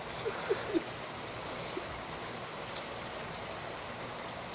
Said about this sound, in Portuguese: E eu não tenho aparelhagem nem nada, então eu vou gravar na minha casa enquanto está chovendo.